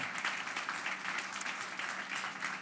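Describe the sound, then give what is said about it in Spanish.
An audience at a church celebration claps steadily for the Lord, a dense, continuous patter of many hands at a fairly even loudness throughout, with no voices standing out above it. “Usted le puede un aplauso, Señor, en esta hora.”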